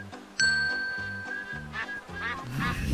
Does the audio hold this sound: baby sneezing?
no